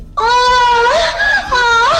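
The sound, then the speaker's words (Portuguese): A loud, drawn-out wailing scream, strained and harmonic, its pitch wavering and rising in two long swells, somewhat like a yowling cat. No one speaks over it. “Que é Esse, é, esse é o grito do, do monstro, cara.”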